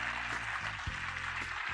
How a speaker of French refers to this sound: je vous demande de faire un tonnerre d'applaudissements